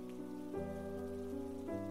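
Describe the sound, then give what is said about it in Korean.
Heavy rain pours steadily onto a roof on a gloomy morning in a dense, continuous patter, with sustained low droning tones underneath that shift pitch twice; no voices are heard. “그때 지붕 위로 떨어지는 빗소리를 하나하나 다 들은 기억이 난다.”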